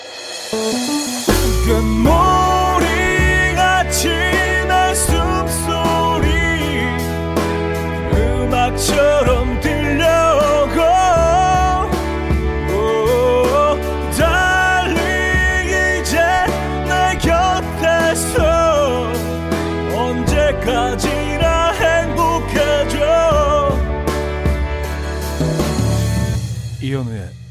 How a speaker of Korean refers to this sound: 저 개인적으로 뭐 좋아하는 노래긴 한데. 아, 음, 굉장히 로맨틱한 노래인데.